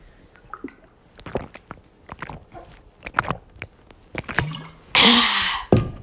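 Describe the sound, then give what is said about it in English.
A dog, Otis, gnaws and chews on a person's finger, making irregular wet clicks and squishy mouth sounds, with a loud breathy rush near the end. No one speaks. “He's currently biting my finger.”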